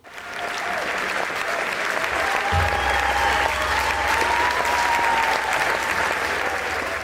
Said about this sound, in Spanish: ¿Sabes lo que es? No, la verdad es que se ha escuchado muy bajito. Son aplausos, gente voceando, ¿no? En un concierto.